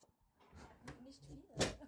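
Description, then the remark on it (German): A door opens with a sharp, fairly loud clunk near the end, preceded by a softer knock or rattle, over faint low background murmur. “Wer macht denn die Tür auf?”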